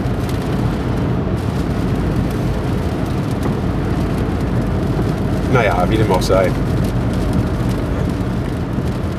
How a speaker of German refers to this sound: Das Wetter ist auf jeden Fall gerade richtig kacke. Ich hasse es, bei Regen Auto zu fahren. Also das Knistern hier, das ist nicht irgendwie, ihr hört den Podcast nicht von der Schallplatte, das sind die Regentropfen.